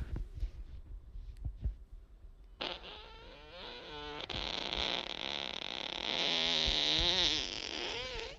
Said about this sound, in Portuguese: É o peido robozinho, peido alienígena.